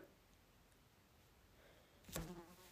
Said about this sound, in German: und hört man die Fliege?